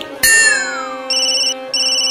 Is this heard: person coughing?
no